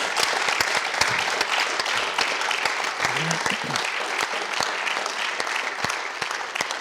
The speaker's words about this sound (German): Vielen Dank, einen warmen Applaus für unsere Gäste.